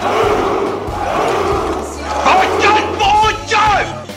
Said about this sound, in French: La plus d'une heure que je vous entends gueuler comme des sarrasins Ils sont fous, ces vikings.